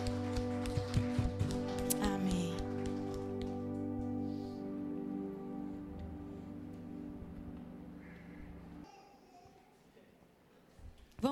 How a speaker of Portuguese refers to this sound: Você pode aplaudir o nome santo de Jesus nessa noite.